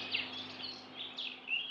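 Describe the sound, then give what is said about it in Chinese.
A small bird chirps in soft, high-pitched bursts, several brief tweets repeating irregularly over a faint, steady low hum, with no voices. “忽然，白雪公主看到一只孤单的小鸟，就蹲下身子，怜惜的捧起它”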